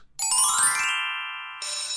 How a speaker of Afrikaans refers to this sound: Die skoolklok lui. Die skool het pas gesluit